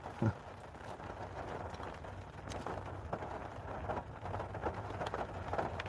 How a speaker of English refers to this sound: can you turn the rain down why is it loud